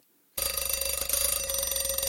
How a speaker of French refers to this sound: Le fameux réveil, le brossage de dents, le pipi.